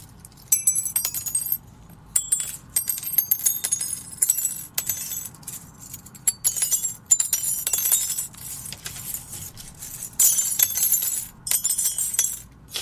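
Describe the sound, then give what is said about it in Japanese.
Many small aluminum pull tabs from canned coffee and beer cans being dropped and clinking, a dense bright shower of tiny metallic chinks in repeated bursts, fairly loud, with no talking. “まず一つ目はこれプルタブあの缶コーヒーとか缶ビールをシュポンと開けた内側に入るやつね、はい、はいはいそれをこんな落とすとこんな音がする”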